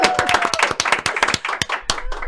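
An audience bursts into applause, many hands clapping in a dense, crackling patter that stays loud and steady throughout, with a few sharper individual claps standing out.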